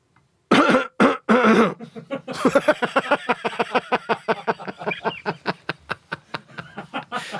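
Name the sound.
deliberate coughing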